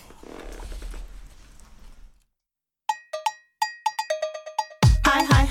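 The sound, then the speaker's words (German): After a burst of muffled noise and a short silence, a bright cowbell strikes out a sharp, ringing rhythm of about a dozen hits before a loud, full pop beat crashes in. “Wollen, wollen wir dann wieder mit einem Lied weitermachen?”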